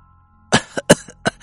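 A sudden fit of choking coughs from someone who choked while drinking alcohol, four harsh, raspy bursts in quick, uneven succession after a brief quiet moment, the first and third loudest, with no talking.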